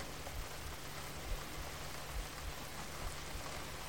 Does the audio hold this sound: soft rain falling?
yes